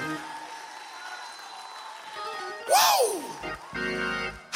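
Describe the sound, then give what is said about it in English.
An audience claps and shouts praise to God in a steady wash of crowd noise, with one loud whooping cry rising above it partway through and sustained musical tones entering near the end. “Somebody clap your hands and give him a shout one more time in this place.”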